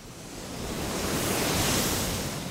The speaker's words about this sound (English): We stand above a surging spray of water that's about to leave the plant and enter the Willamette River.